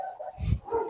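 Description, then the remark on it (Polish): A dog gives one short, muffled bark with a thin whining tone drawn out around it. No voices are heard. “Słyszysz, jak jeden pies szczeka, to przyciąga drugiego.”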